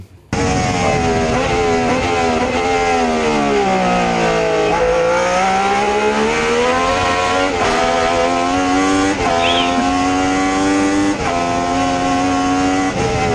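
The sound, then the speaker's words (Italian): A loud engine of an older car revs continuously, its tone dipping low and then climbing back up in long sweeping pitch changes, with no voices over it. “Questo è il suono meraviglioso del motore di una macchina quando i motori cantavano ancora.”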